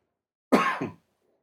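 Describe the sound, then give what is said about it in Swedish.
A single harsh cough that rolls into a throat clearing, about half a second long, loud against an otherwise silent background. “Jag ska hosta lite.”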